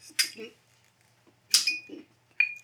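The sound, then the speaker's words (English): Glasses of champagne clinking together for a toast: three bright, ringing clinks spaced apart, each with a short high-pitched ring that fades, while soft murmuring voices fill the gaps. “make that toast, fellas. Fuck it. Let's hit a glass clink.”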